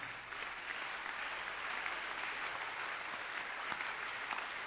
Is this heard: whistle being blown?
no